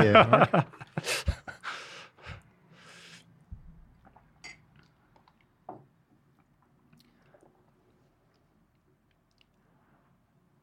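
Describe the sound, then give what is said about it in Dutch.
A voice utters a brief hesitation, then wet sipping and swallowing noises of someone drinking tea, with a few soft clicks before falling nearly silent. “Even een slokje thee.”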